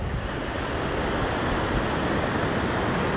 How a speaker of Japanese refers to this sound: で今もう波の間際にいるから